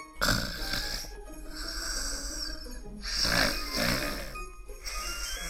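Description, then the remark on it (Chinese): A child snoring in sleep, with a few drawn-out, rasping breaths rising and falling in a slow rhythm, moderately loud and with no talking. “想着想着，这个小孩就睡着了。”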